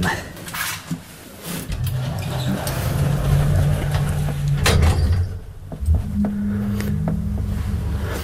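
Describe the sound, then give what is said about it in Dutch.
A steady low mechanical hum of an elevator in motion, with a few sliding-door clunks and rattles, and muffled voices faintly underneath. “Dat hoort samen voor mij de zee en zo'n lift.”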